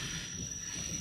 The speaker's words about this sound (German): Fährt der Bus los? Das ist jetzt übrigens der Zug, nicht der Bus. Ich rede vom Bus. Das ist was ganz anderes. Egal. Also, das, was ihr hört, ist der Zug. So. Aber der Bus hat jetzt nicht so gequietscht.